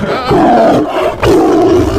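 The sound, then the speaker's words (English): Two loud tiger roars, each a deep rumbling growl with a sharp onset, the second starting right after a brief pause. No talking. “now, is that for Pr- Princeton? Princeton Tiger there? Auburn. Oh, Auburn, Auburn Tiger.”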